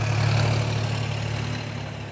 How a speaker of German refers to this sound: Ja, wir äh, sind hier an dem Abfahrtplatz sozusagen und hier fahren die Traktoren jetzt los. Äh, äh Sie sagen, es sind ungefähr 100. Sie haben sich schon seit einer halben Stunde hier um das ganze Feld herum versammelt und fahren jetzt hier los